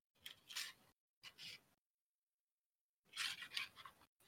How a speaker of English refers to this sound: my cat's tearing up the paper that's on my desk. Oh God! It sounded like you're. I thought you were sharpening a pencil or something.